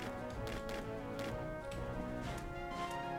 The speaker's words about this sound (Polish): O nie, tu nie mogę iść. To jest właśnie dźwięk, który pokazuje mi, że tutaj jest za zablokowane wejście i nie mogę tam przejść.